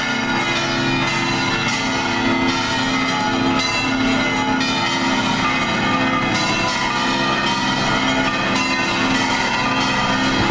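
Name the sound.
cathedral church bells ringing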